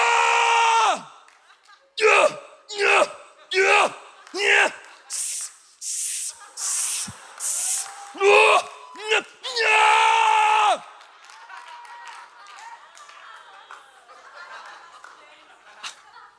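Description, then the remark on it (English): A voice mimics a weightlifter's strained roar: a run of loud, sharp grunts and hissing breaths builds into a long bellowing yell, followed by faint crowd noise and laughter. “I'm lifting with everything in me.”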